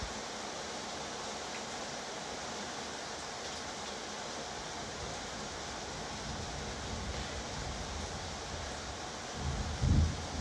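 Heavy thunderstorm rain pours down on dry farm fields in a dense, unbroken hiss that holds steady throughout, with a brief low rumble rising just before the end.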